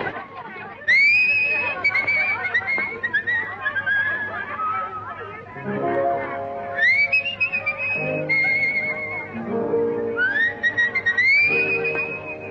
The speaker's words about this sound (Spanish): escuchemos esta canción que es del año 34 y que nos muestra cómo componía Gardel silbando